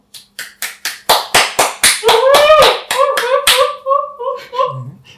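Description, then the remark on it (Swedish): Closing applause from the audience begins as steady, evenly spaced claps. It then grows fuller as high, sustained cheers and whoops join in, and trails off into voices as the clapping fades. “Vill ni ge en avslutande applåd?”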